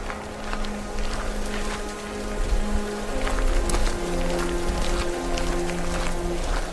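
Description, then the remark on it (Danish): Steady rain pours down at night in a dense, continuous hiss, with scattered drops pattering and low sustained tones humming faintly underneath. “Ud i regnen og mørket sniger to skikkelser sig ud på gårdspladsen”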